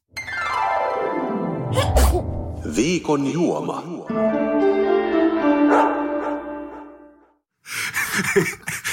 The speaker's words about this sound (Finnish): Mä aion teeskennellä, että mä en kuullut tota, koska kun sä kuulet tämän, niin sä ymmärrät, miksi mä oon tehnyt taas uuden jinglen.